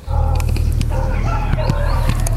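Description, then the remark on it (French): Dogs barking and scuffling in a fight at sunset, with repeated sharp barks and yelps over a steady low rumble, loud throughout. “Oh là là, il y a un combat de chien carrément.”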